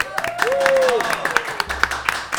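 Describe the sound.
An audience applauds with steady, crisp clapping that continues throughout, mixed with a few cheering voices and a brief rising-and-falling whoop early on.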